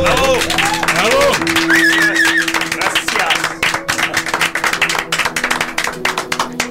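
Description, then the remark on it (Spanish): A crowd applauds loudly with dense, continuous clapping and a few cheers or whistles at the start, the claps thinning slightly toward the end. “Un último aplauso.”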